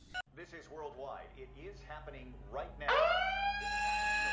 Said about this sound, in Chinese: 一声警笛响起，随之而来的人群蜂拥离开，车流如注，天上的战斗机不断传来的轰鸣声，这样的场面和音效打开了观众看科幻影片的心理期待